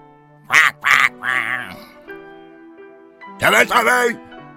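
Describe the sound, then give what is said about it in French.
A voice imitates a duck answering a farmer with loud, nasal quacks: two quick squawks and a drawn-out one, then after a pause another raspy pair of quacks. “criait le fermier, et le canard répondait”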